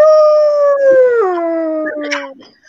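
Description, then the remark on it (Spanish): A single long, wolf-like howl held steady, then sliding downward in pitch before trailing off, loud with rich harmonic overtones. “¡Oh! Escúchame. muy Lobo.”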